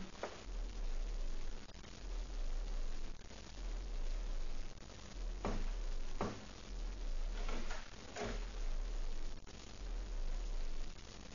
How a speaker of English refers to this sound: Footsteps. Someone's coming to the front door.